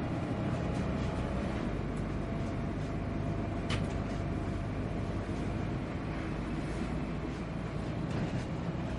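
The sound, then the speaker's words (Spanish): Steady, dense rumble of a moving bus interior, low engine drone and road noise holding an even level throughout, with one brief sharp click partway through and no voices. “En un autobús, Thierry viaja de pie.”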